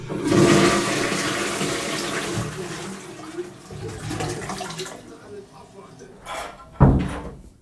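toilet flushing

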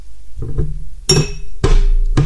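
glasses clinking

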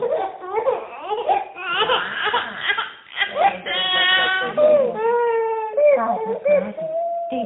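three-month-old baby crying

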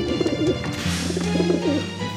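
doves cooing

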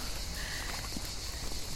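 cicadas chirring

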